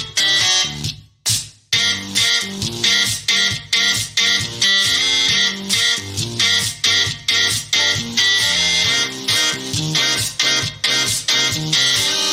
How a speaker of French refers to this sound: interprété par le …, donc disque dur, calculette, brosse à dents électriques, ainsi qu'un fer à repasser à vapeur, il n'y a pas de raison.